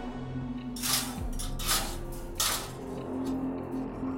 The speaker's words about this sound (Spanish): El sonido de la reja me espantó y me hizo voltear hacia la dirección donde percibí que provenía.